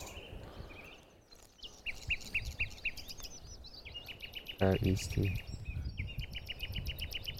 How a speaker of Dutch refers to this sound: Dus dat doen ze een soort van als intro. En dan die, die, die, die, de, de triller is een... Kijk, hier zit de nachtegaal. Ik zal hem even in de scope zetten. Jij ja, ziet hem natuurlijk nog niet. Nee, klopt. Ja, dit is hem. de nachtegaal.